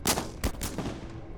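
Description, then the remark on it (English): Four shotgun blasts from four shotguns revealed as a wall on the northwestern side drops go off in quick, uneven succession, sharp and booming, each trailing into a brief rumble. No voices. “As you guys hit the ground, you hear four shotgun shots go off.”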